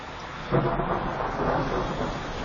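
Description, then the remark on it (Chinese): A low, rolling rumble of thunder before rain swells after a brief lull, staying loud and steady over a broad wash of noise, with no voices present. “呀，要下雨了，得赶紧收摊。”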